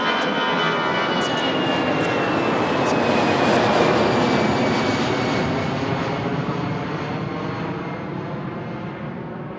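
Steady, loud roar of airplane jet engines at Imam Airport, with a thin high whine that slowly drops in pitch, swelling slightly midway and easing off toward the end. No one speaks.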